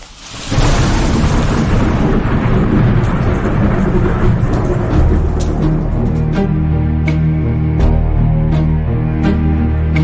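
Deep, heavy thunder rolls in almost immediately and keeps rumbling loudly for the whole stretch, with a rainy hiss over it and a few sharp crackles near the end.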